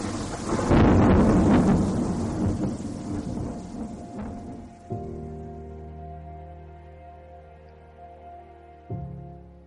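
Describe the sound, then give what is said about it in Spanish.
A loud rumble of rolling thunder from a night-time storm swells and slowly fades over several seconds, giving way to soft, sustained musical tones with no voices. “La noche pasó y con ella también pasó la tormenta.”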